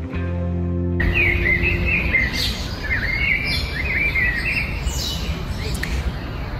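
Outdoor forest ambience with birds chirping and trilling continuously over a steady rushing background, preceded by a brief sustained tonal hum in the first second.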